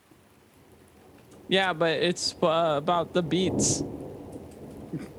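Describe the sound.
Gentle, steady rain patters throughout as a soft hiss, continuing beneath a brief stretch of a man talking in the middle before settling back to rain alone.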